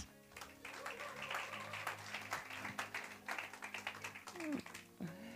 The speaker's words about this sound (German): Vielen Dank, David. Herzlichen Applaus für David.